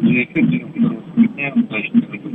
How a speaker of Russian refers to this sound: а сделайте, пожалуйста, радио потише, а, а в телефон погромче говорите, и тогда мы вас все будем слышать.